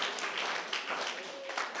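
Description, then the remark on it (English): An audience clapping their hands together as they march in worship, a dense, steady wash of many overlapping claps with faint voices mixed into the crowd noise. “As you are marching, yeah, you can clap your hands.”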